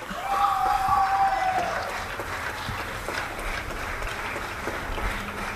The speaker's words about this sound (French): Ok, bon, bah, j'enregistre au moment où tout le monde applaudit dehors, ça c'est cool, il est 20h, ça fait plaisir pour les gens qui soignent.